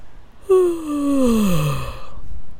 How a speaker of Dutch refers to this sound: En door hardop te gapen zak je uit je hoofd, langs je stem, in je lichaam. En juist door het met geluid te doen, gaat het nog makkelijker want je stem is echt de toegangspoort om uit je hoofd in je lichaam te zakken.